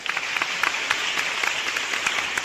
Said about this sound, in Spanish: Pido excesivos, calurosos aplausos para mi compañera de Quinos y compañera de cabina internacional